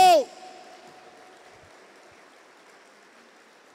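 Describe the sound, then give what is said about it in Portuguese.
A church audience applauds the Lord in a steady, dense wash of clapping that carries on for several seconds, right after a brief loud shouted voice at the start, then slowly thins. “Os que creem aplaudam ao Senhor, dizendo: Obrigado!”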